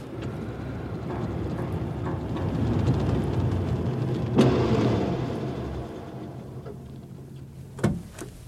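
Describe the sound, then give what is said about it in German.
A car engine rumbles steadily, swelling as the vehicle rolls in and then easing down as it comes to a halt at the Covent Garden vegetable market, with a couple of sharp clicks and clunks near the end. “Stoppen Sie auch”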